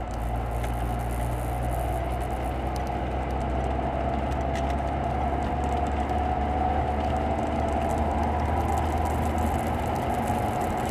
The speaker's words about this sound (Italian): mi garba anche farvi sentire un po' di momenti dove si sente unicamente il rombo della macchina. Questo è uno di quelli.